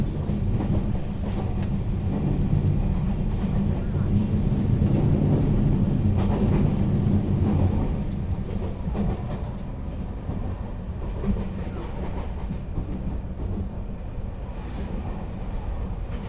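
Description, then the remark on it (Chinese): A moving train rocks and sways as it rumbles steadily on the rails, a deep continuous roar with faint rhythmic clattering woven through it, easing slightly in loudness partway through. No one speaks. “你听着这个声音呢，这个火车这样摇摇晃晃的声音呢。”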